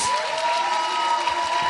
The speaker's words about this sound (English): Clap for him as he goes back to his seat.